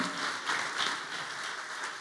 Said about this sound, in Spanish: Denle el aplauso. Iglesia, por favor.